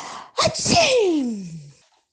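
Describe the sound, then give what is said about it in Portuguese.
A voice acts out an alligator's sneeze-like snort and panting: a sharp burst of breath followed by a loud, drawn-out cry sliding downward in pitch, alone, lasting about a second. “De repente, sem dar tempo de mais alguém chegar, o jacaré bufou e começou a ofegar.”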